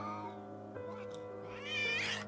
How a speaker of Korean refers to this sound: 저 더러운 고양이 새끼가 개업날부터 재수없게 가게 안에 떡하니 앉아서 나갈 생각을 안 하고 있잖아. 이모부의 시선 끝을 따라가 보니 그곳엔 오랫동안 거리를 떠돈 듯 아주 지저분하고 못생긴 고양이 한 마리가 날이 잔뜩 선 채로 하악질을 하며 꼿꼿하게 서 있었다.